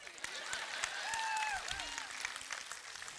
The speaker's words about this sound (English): By the way, we're newlyweds. Y'all supposed to clap.